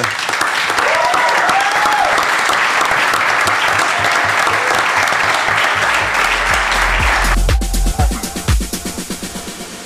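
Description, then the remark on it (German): Dense applause from a group for the guest gentlemen fills the first seven seconds, steady and fairly loud, then gives way to a few sharp, decaying hits that sound like a short musical sting. “Ich würde mal sagen, ein kleiner Applaus für die Herren, dass sie das hier.”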